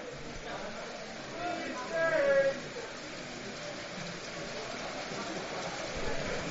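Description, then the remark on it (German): Steady rain drums on a steel roof during an American football game in Marburg, in a dense, continuous patter, with faint indistinct voices and a brief higher-pitched sound near the start rising over the wash. “Sie hören über das Atmo-Mikro der Regen, der aus Stahlendach prasselt.”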